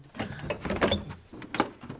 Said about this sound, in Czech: abys mi otevřela opět ty naše lodní dveře.